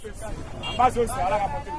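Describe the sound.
Steady crowd hubbub at the entrance of the CK2 market in the first arrondissement of Bangui, Central African Republic, with overlapping voices chattering and a faint hum of traffic underneath, moderately loud throughout.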